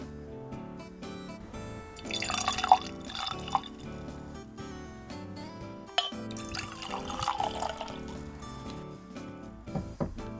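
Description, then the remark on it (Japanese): Lightly fizzy cloudy Japanese sake is poured into glasses in two bursts of liquid splashing and bubbling, moderately loud, with a few clinks and drips between pours and no talking. “ちょっとシュワシュワとしてるシュワシュワっとしてると思いますあのこれ上に穴が開いてたんですけど、はい、あのシュワシュワが抜けるように”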